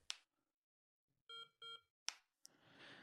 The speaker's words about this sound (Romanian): Dacă vreau să, co- să închid complet device-ul, apăs pe butonul de power lung până au două bipuri.